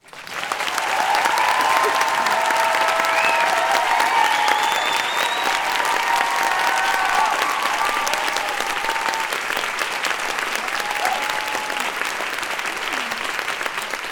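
A live show audience at La Poudre Live applauds loudly and continuously, welcoming a musician guest on stage, with a few cheers and whoops rising above the steady clapping before it gradually eases off.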